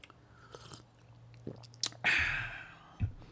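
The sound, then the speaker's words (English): Someone drinks a glass of water, with a long slurping sip, soft wet mouth clicks and a gulp at the end, over a low steady hum. “So, let me get a drink of water.”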